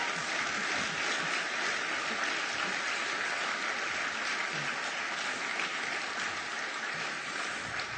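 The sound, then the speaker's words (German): Sustained audience applause for a community pastor, a dense steady wash of many hands clapping at an even loudness for the full eight seconds, with no voices over it. “Und gibt es einen Applaus für ihn?”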